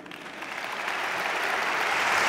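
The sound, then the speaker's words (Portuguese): Sustained audience applause, one of the biggest so far, for a speaker's criticisms of Luís Montenegro's leadership; a dense crackle of many hands clapping that swells slightly louder toward the end, with no voices heard over it. “Muitos vazios aqui elencados com um dos maiores aplausos até agora para estes, estas críticas a Luís Montenegro.”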